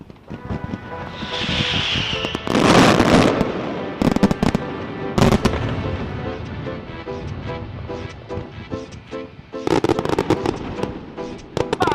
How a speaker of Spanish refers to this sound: vamos a centrarnos en esos fuegos artificiales que hoy son símbolo de la Semana Grande. Sí, ya en el siglo XVI era costumbre la quema de colecciones de fuegos artificiales en momentos de fiestas importantes.